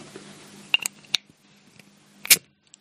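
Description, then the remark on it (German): A beer bottle being opened: a few sharp metallic clicks from the cap, then one loud, bright pop with a brief hiss. A low steady hum runs underneath, and no one speaks. “Gut, dann machen wir es mal auf.”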